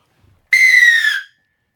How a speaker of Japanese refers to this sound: 4年後に向けてのそうですね笛を奏でていただきましょうか。はい、では、えー、うん、大きな音が出ますのでご注意ください。ではいきます。